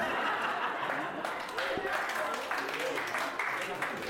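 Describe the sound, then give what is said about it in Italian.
A crowd applauds steadily for about four seconds to welcome a riddle expert onto a show, a dense, even wash of clapping at constant loudness, with a few voices and brief cheers mixed in. “Eh, signori, un applauso perché con noi abbiamo la più grande esperta di indovinelli, un applauso.”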